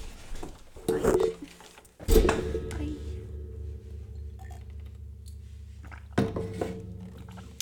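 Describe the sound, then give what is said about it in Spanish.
Someone pauses for a drink of water, with a few close, hollow clunks of a bottle or glass being picked up and set down over a steady low background hum. “Espérate que voy a beber agua.”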